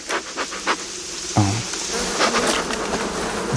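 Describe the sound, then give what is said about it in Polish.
A steady insect buzz of calm honeybees at an open hive hums continuously over a soft, rustling background, with a brief deeper drone swelling up near the middle as one passes. “Ale pszczoły nadal są spokojne.”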